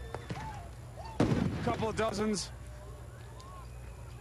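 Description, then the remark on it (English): Gunshots crack outdoors, a faint early shot followed by a louder big volley of rapid reports, with a man talking over the tail end. “There's a big volley now of it.”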